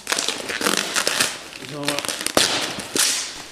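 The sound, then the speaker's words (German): Crackly bursts of tape and cardboard as a person tears open a tightly taped parcel by hand, in several irregular pulls with crinkling between them and a short vocal sound partway through. “Ich habe hier noch ein Paket bekommen. Das ähm, hat er ähm, eben hier schon nebenbei aufgerissen, also die Geräusche, die er.”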